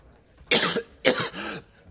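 human body sound, man coughing

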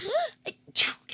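human body sound, sneezing

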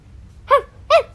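animal, small dog barking

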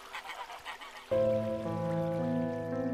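bird, geese honking

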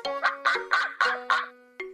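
bird, goose honking

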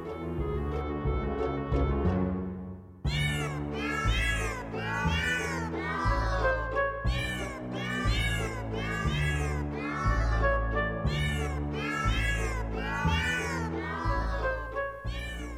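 animal, cat meowing

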